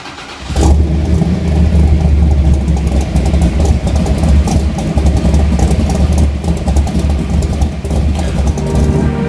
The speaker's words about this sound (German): ich gebe damit das Startsignal und werfe für euch den Motor für die heutige Episode mit an.